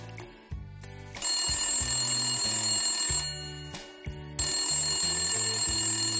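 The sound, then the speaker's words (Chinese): A phone rings over and over in a loud, bright electronic pattern, layered with a low melodic musical backing that steps between notes; no one speaks. It is Pauli's phone, ringing non-stop. “泡里的电话响个不停。”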